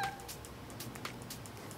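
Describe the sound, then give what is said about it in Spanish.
A cat meows softly as it comes to greet. The sound is quiet and brief, set against a steady low background hiss with no one talking. “Ya vino el gato a saludar.”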